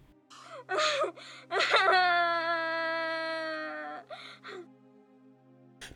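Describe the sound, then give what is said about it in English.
A little girl screams and cries after her gag is removed: a few sharp gasping sobs, then one long, loud, high-pitched wail that fades into more ragged crying breaths. “Faiza had just removed the little girl's gag, and Arihant had to listen to the child's heartrending scream.”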